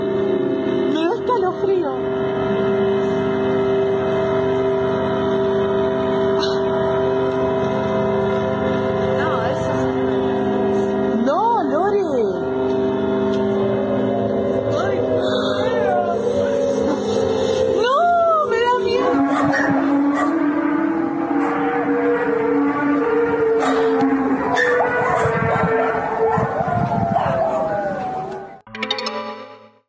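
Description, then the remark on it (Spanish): Eerie, trumpet-like noises in the sky drone loudly and steadily, layered with echo and slow sliding pitch bends, swelling and groaning for nearly half a minute before cutting off abruptly. “Hay muchos videos en YouTube sobre estos ruidos y les ponen títulos literal como trompetas del apocalipsis”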